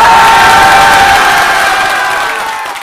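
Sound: crowd cheering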